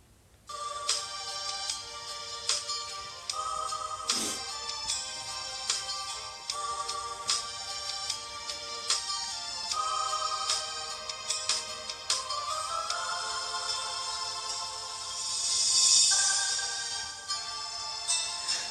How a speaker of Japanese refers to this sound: じゃあそんなことでね、あのー今回も一曲聴いていただきたいと思います。